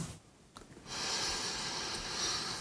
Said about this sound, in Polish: Patrz, od razu zacząłem regulować oddech, kiedy przyjąłem pozycję taką siedzącą. Próbowałem się skupić i od razu zacząłem lepiej oddychać.